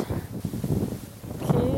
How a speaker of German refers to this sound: Jetzt wird es ein bisschen zu windig.